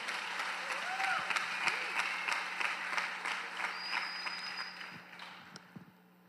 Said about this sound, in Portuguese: Somente os corajosos dão um aplauso bem forte ao Senhor nessa noite. Amém?